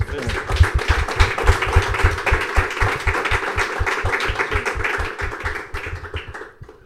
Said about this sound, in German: Ich glaube, es gibt noch einen Applaus.